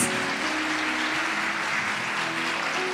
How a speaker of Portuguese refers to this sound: Então, você que é mãe, sinta-se homenageada nessa noite. Uma salva de palmas a Jesus por toda, para todas as mamães.